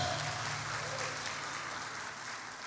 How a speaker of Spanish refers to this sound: Si usted es sacerdote, dele palmas al Señor. Amén.